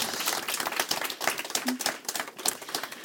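Audience applause for a woman: a steady patter of many hands clapping at once, dense and fairly even throughout, with no voices standing out above it.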